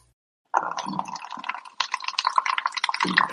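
A person urinates: a steady stream of liquid splashes into water for about three seconds, starting abruptly after a short silence, fairly loud with a bubbling, uneven patter.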